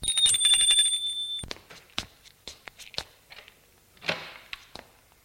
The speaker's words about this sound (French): Gustave était absent, l'on sonne à la porte.